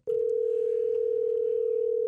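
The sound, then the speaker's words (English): A telephone line rings as a call is placed to a guest, a steady unbroken tone for about two seconds, clear and fairly loud, with no voices over it. “See if we can get the phones to work properly. Uh, look at that. It's actually ringing.”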